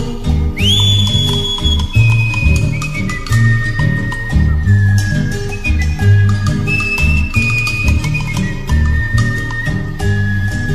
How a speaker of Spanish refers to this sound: Me distingue este chiflido porque no nací cantor.